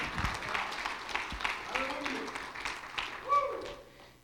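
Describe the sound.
An audience claps hands in a dense, steady patter of many overlapping claps, with voices calling out and a brief whistle-like tone rising above the applause.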